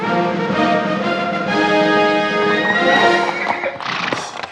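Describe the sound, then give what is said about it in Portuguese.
Horses ridden by 38 servants inside a hotel whinny loudly over the steady clip-clop of hooves, with long ringing calls filling the few seconds and no one speaking. “Agora, estes 38 criados que andam atrás de ti a cavalo dentro do hotel e tocam trombetas cada vez que entras numa sala, é que já me parece excessivo.”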